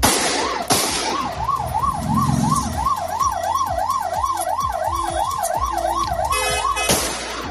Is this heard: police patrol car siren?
yes